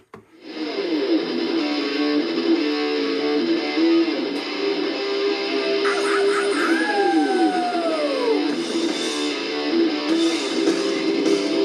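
A loud, dense 1987 hard rock track, played as track number 3 on Rádio Maresia, plays steadily throughout, with distorted electric guitar and a swooping, pitch-bending guitar slide partway through.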